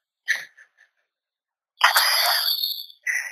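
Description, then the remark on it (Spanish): A dog whines at home in high, thin tones: a few short whimpers, a pause, then a long drawn-out whine followed by one more brief cry. “Terminamos con, con perros en tu casa, con perros que en público en la radio, con, los equipos de sonido y terminamos con un perro temblor aquí en casa.”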